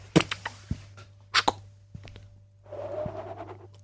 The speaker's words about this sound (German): Feuerzeug mhm. an, Zippo.